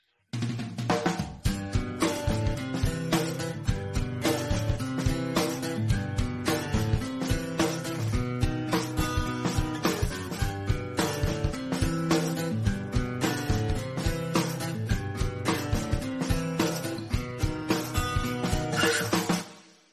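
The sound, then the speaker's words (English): A bright, upbeat trivia sounder jingle plays loud and up front, full instrumentation over a steady driving beat for about twenty seconds, then cuts off quickly at the end. No one speaks over it. “The trivia sounder? Trivia sounder.”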